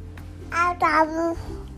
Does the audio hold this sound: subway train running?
no